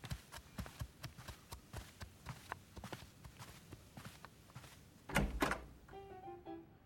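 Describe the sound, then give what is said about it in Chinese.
Steady footsteps tap along for several seconds, then a loud clunk as a door is unlatched and pulled open, followed by a few short, tonal squeaks. “呵呵，我去开门。”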